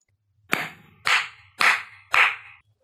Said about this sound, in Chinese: 听到了没有呢？clap，拍拍手。我可以用手来拍一拍。